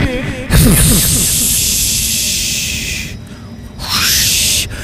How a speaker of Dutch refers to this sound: U heeft nog enkele seconden en dan sluit ik de deuren. Komt u maar. Ja, nog snel instappen. De, de deuren gaan nu dicht.